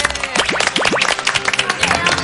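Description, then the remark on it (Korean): A crowd claps steadily in a dense, even burst of applause welcoming orchestra members (strings, woodwinds and brass) onto the stage of a JTBC television programme, with a few rising voices or cheers mixed in over the clapping. “한번 박수로 환영의 인사를.”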